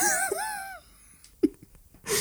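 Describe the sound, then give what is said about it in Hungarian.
A single person's wavering, pitched gasping build-up, like the start of a sneeze, fades without ever releasing into a full sneeze, followed by a brief breathy puff and quiet. “Tüsszenteni akartam, bocsánat.”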